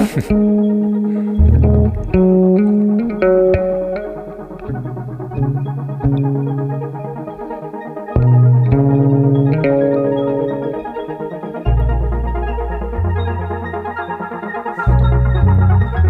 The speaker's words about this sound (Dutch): Een bedje van glitch en synths.